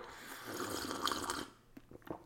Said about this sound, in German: Ich nehme noch mal kurz äh, vor Beginn ein frisch gezapftes Schlückchen koffeinhaltige Apfelschorle zum Wohl.